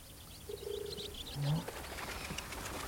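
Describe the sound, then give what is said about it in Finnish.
Many white doves coo twice, a longer soft hooting note followed by a shorter, deeper one, over a constant hiss with faint high chirps from other birds scattered throughout. “Katso, miten paljon valkeita kyyhkysiä.”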